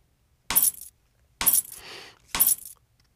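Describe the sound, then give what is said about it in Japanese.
A keychain jangles in three short bursts, bright metallic clinks and rattles, the middle shake lingering a little longer with a softer rustle. No voices. “大丈夫やこのキーホルダーの中に音声入力の方法が入ってる”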